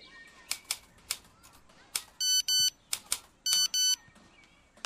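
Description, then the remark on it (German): A mobile phone message notification tone sounds twice, each a quick pair of bright electronic beeps, cutting through steady, sharp typewriter key clacks. No one speaks. “Alte Leute und Handy, das ist eine ganz schlechte Idee.”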